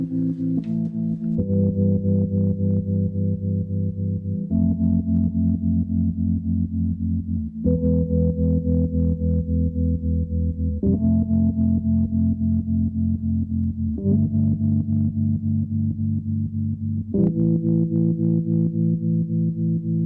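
A moody trip-hop track plays loud and steady, with heavy, effects-laden sustained chords shifting every few seconds over a deep bass; no voices are heard.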